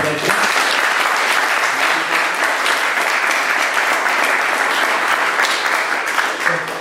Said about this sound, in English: And we're over time, so round of applause please for …. Thank you.